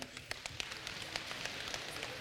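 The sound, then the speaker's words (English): A crowd slapping their laps all at once, making a dense, continuous patter like steady rain, with scattered sharper smacks standing out over a couple of seconds and no voices. “Can you slap your.”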